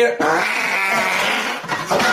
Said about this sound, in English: whatever he ate regretted going in that guy's mouth, and that was the "Why did you eat me?" fart.